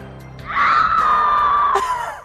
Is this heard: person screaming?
yes